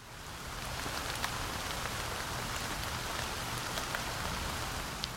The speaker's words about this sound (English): This makes them good for recording things like crowds, vehicle interiors. moderately loud ambiances. Weather like rain.